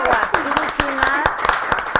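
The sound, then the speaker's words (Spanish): Scattered applause from a small group, with sharp irregular claps close by, mixed with voices calling out and talking over the clapping. “Oigan, muchos aplausos”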